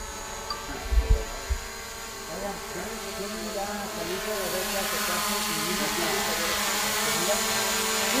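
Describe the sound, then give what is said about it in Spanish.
A drone hovers among a group of people with a steady, high whirring buzz that brightens and grows fuller partway through, accompanied by a couple of soft thumps early on and faint voices underneath. “Ya está el dron aquí volando entre nosotros, amigos.”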